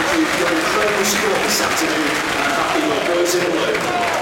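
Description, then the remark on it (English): A football stadium crowd at Oldham applauding the announced attendance of 9,496, including 2,520 Wrexham fans: a dense, steady wash of clapping and murmuring voices that holds at an even loudness for about four seconds without a break. “I, I went quiet then because I suspect you can all hear that.”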